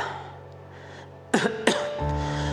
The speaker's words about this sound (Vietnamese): Cơn ho rũ rượi làm … ngưng lại